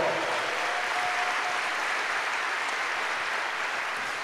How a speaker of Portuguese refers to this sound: Dá um aleluia aí. A nossa mensagem é para Jesus, aplauda melhor.